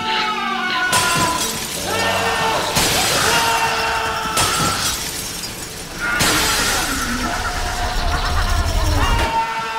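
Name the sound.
glass breaking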